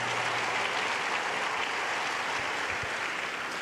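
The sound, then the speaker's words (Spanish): An audience applauds God as their deliverer, a dense, sustained wash of many hands clapping at an even loudness throughout, with a low hum underneath and no voices standing out. “Dale un aplauso a tu libertador.”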